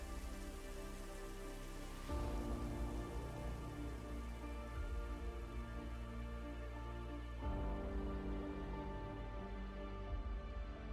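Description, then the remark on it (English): Steady rain patters on a surface, a dense wash of drops with two brief swells in intensity before settling back to an even downpour. No voices. “The conductor smiled as only he could, beneath the parting clouds of the vanishing storm.”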